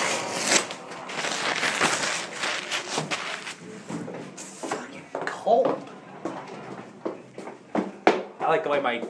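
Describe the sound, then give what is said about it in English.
Crunchy footsteps on a brittle surface, a rapid run of crackling steps that carries on unevenly throughout, with brief bits of voice breaking through near the end. “my feet sound on this.”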